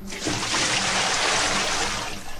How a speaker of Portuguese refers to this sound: Ela tem que receber, acho que antes do cachorro a gente tem que jogar um balde d'água para ela acordar